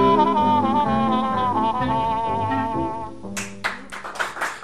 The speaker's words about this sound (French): Je sais pas qui est cet applaudisseur fou, c'est pas moi.